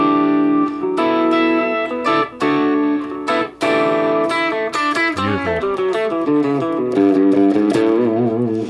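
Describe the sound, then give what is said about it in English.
Electric guitar with its volume control turned down to about four for a half-overdriven tone strums a series of full chords, then shifts into ringing picked notes and arpeggios, loud with no talking. “I got more of a half overdriven sound. with that, you can even play like these kind of chords.”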